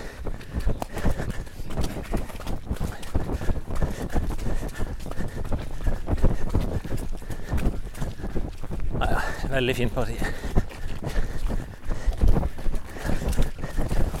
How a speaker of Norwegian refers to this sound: Det regner jo, dere hører sikkert det på mikrofonene. Plaske over noen dammer, sprette på noen steiner.